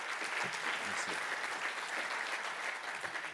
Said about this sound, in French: On peut d'ores et déjà vous applaudir un petit coup avant de prendre les, les questions.